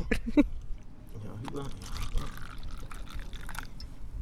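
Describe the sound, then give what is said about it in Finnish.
A drink is poured into glasses, a steady liquid gurgle running for a few seconds, with a couple of light knocks at the start and quiet voices murmuring underneath. “Pitääkö meidän laittaa lisää lasin täytettä?”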